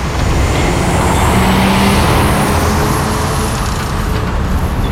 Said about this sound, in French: Le temps est long, le soleil est chaud, le vent souffle, les bruits des voitures brûlent les oreilles, tout va bien.